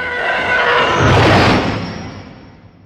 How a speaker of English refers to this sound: The TIE fighters are one of my favorite sounds in Star Wars.